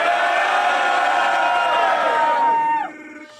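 A live crowd at a rap battle event cheers and whoops loudly in a dense, sustained roar for a team of battle rappers, with a few voices shouting above it before the noise drops off abruptly near the end.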